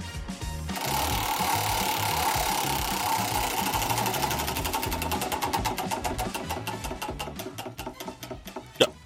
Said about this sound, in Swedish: Du snurrar på hjulet, stannar på något och så lyssnar vi på något Bus från förr.